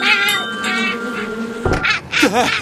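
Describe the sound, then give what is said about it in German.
A steady buzzing of bees in flight drones for over a second as they come back into a workshop through a cat flap, then a sharp clack cuts in, followed by a brief whining, mew-like sound. No one speaks. “Ich kann es auch summen hören. Oh ja, es summt auch. Die Bienen kommen durch die Katzenklappe wieder rein.”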